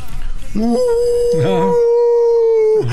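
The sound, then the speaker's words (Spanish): A man imitates a wolf's howl with his voice, a long sustained tone that rises and holds steady for about two seconds before trailing off, fairly loud. “estoy aullando, pero de recuerdos.”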